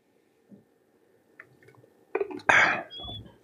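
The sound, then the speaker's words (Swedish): A sip of water: soft mouth clicks and a wet slurp, then a louder gulp followed by a breathy exhale, with no talking. “Jag ska bara ta en slurk med vatten här så ska jag gå igenom den.”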